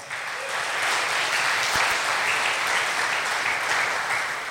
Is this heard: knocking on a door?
no